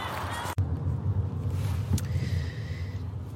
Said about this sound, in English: So we're in we're in the car now, and yeah.